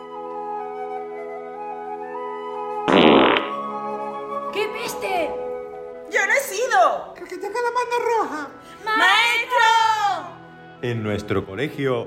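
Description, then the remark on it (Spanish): A quick run of loud, buzzy fart sound effects for new Ambipuf stink-diffusing chairs, each one sputtering and wobbling in pitch, fired off one after another with short gaps between them. “nuevas sillas Ambipuf, difusoras de peste.”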